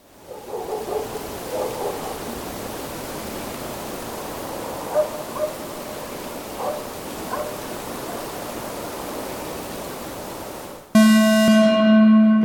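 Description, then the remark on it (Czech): A steady, rushing ambience of a forest near Nová Paka, with a boxer dog barking faintly in the background a few times in short bursts, then a loud, harmonic electronic tone cuts in abruptly at the very end. “poznala byste, co to bylo za rasu tam vzadu, nebo dá se to, to nějak... boxer, no, já to poznám. Boxer to byl.”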